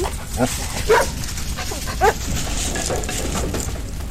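A famous firefighting dog, sent in to rescue a young girl from a burning house, lets out three short, sharp barks at uneven intervals over a steady rushing background noise.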